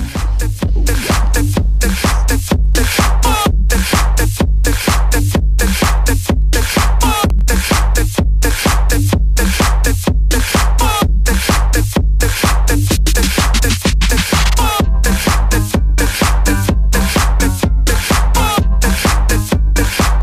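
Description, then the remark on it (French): A loud, driving remixed electro track with rap vocals, a relentless, evenly spaced pounding beat and dense, bright synth layers filling the mix throughout. “je vais passer le son, euh, le son qui m'a fait.”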